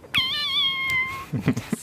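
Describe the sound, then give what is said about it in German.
A person imitates a cat with one long, wavering meow that rises and slowly falls over about a second, sounding convincingly feline, followed by brief murmurs of voices. “Also mein Talent ist es, Katzengeräusche nachzumachen.”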